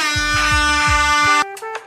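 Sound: horn honking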